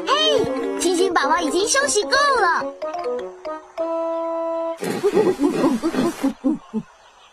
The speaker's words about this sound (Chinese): 山地大猩猩的宝宝又有事想要告诉我们，他们是想吃、睡觉，还是玩呢？Right，山地大猩猩的宝宝想吃东西，我们得帮他们找吃的。